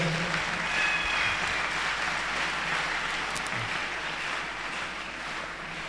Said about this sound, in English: Oh, are, are you clapping?